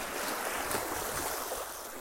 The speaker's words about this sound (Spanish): Estoy aquí cerquita de la frontera con lo que es este, Arizona. Es una parte muy hermosa y entonces mucha gente viene aquí a nadar, a pasear, a estarse un tiempo distraído con el mar. Como lo pueden oír, es muy relajante.